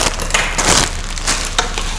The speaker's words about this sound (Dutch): En dan heb ik nog kip en taugé. Ik ga de taugé erbij gooien.